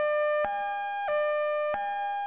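An ambulance siren, from an ambulance called after a collision, wails steadily in a high, buzzy tone, switching pitch at a regular pace about every two-thirds of a second, with no voices present.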